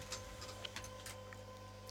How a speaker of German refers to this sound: Oh. Hörst du das? Ja, was ist das? Auf einmal, es druckt jemand hier. Ach so. Der Drucker ist angesprungen.